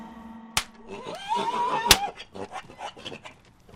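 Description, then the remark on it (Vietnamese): Two sharp, loud whip cracks land about a second apart as a mule pulling a coal cart is whipped, its whinny rising and wavering between them, followed by agitated snorting and scuffling noises. “Bình thường cha vốn là người từ tốn mà hôm đó ông quất con là rất đau.”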